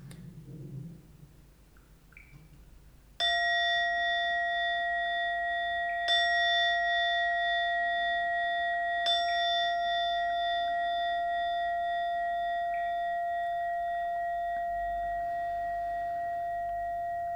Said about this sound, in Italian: Tra pochi secondi sentiremo il suono della campana per tre volte, dopodiché potremo rilassarci, aprire gli occhi